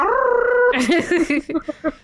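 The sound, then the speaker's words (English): Dogs: a sustained, wavering howl gives way to a quick run of sharp barks and yips, several in a row, loud, with no one talking over them. “Uh, they're they're super they're chatty today.”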